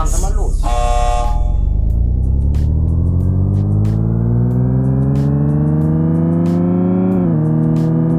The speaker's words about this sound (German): Startet die Motoren. 3, 2, 1.